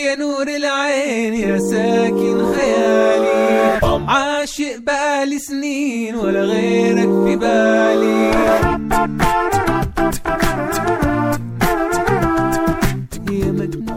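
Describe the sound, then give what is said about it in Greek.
Layered a cappella music from Saudi Arabia built only from human voices and body sounds, with no musical instruments: stacked sung harmonies with wavering vibrato, joined midway by crisp, rhythmic mouth-percussion hits, loud throughout. “ο οποίος δημιουργεί ακαπέλα παραγωγές μόνο με ήχους που μπορεί να παράξει το ανθρώπινο σώμα.”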